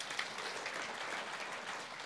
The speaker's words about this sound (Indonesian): Tepuk tangan bagi Tuhan, saudara.